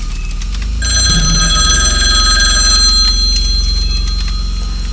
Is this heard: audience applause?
no